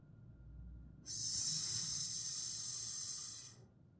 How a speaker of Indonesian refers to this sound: Sebelum beranjak, tiba-tiba ada suatu desisan yang terdengar seperti berada tepat di balik pintu kamar.